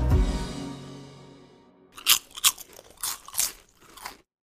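A fading musical tone gives way to about half a dozen sharp, crisp potato chip crunches in an uneven chewing rhythm, loud and dry, with no talking.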